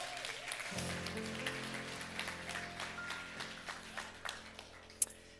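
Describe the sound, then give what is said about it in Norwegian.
A crowd applauds steadily for several seconds, a dense wash of many hands clapping at moderate loudness, with a sustained low hum underneath and one sharper clap near the end. “Gi dem en eh, applaus.”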